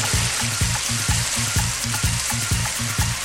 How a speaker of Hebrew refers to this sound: ממלאים מים, מחברים על החשמל, מפעילים ו... שימו לב לאידי, לאידי הקיטור הלוהטים.